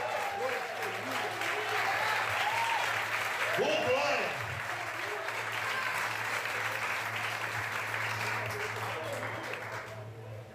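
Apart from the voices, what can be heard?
audience applauding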